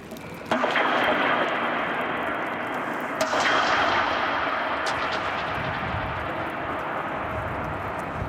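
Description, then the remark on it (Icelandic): Two sharp knocks inside a new, empty, open hot water tank built to hold 9,500 cubic metres of water. Each is followed by a long, booming metallic echo that rings on and fades only slowly, still sounding at the end. “Já, það er mikið bergmál. Við vi, vi vitum ekki hva, hvernig þetta bergmál hættir.”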